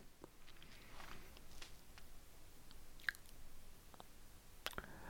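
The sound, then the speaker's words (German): Close-up wet mouth noises: scattered lip smacks and sticky clicks right against the microphone, a few sharper pops standing out over a quiet background, no talking. “Ich habe gerade schon wieder ins Mikrofon geschmatzt.”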